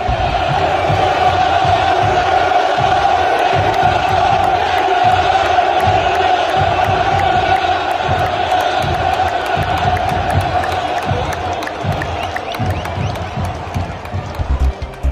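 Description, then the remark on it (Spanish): A large stadium crowd of football fans chanting in unison, a loud, sustained roar of voices with a rhythmic pulse, continuous throughout with no separate speaker. “una palabra, no, no, un cantito”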